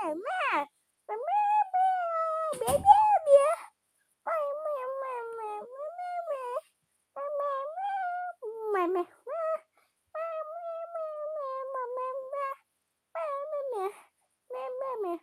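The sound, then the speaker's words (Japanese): A person sings a cat song in a wavering, meow-like voice, imitating a cat through a string of drawn-out, pitch-bending phrases separated by short pauses, fairly loud, with a brief thump early on. “猫ちゃんの歌。めめめめめねねね。”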